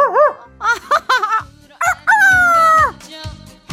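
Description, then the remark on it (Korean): A few short, sharp clucks from chickens being given feed, then a rooster's loud, drawn-out crow, with more clucking trailing after it. “평소처럼 개밥이랑 닭모이를 줄 때마다 연습을 할 뿐이었죠.”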